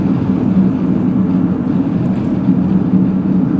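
Steady, loud low-pitched rumble inside a car while driving, a continuous engine and road drone with a faint hum, no voices present.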